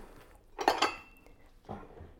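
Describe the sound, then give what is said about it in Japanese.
A couple of bright clinks from a heat-resistant container as Daiso apple-flavoured microwave gummy mix powder and water are put into it, a short cluster of taps followed by a single softer knock a moment later, with no talking. “耐熱の容器にこの粉と水を入れます”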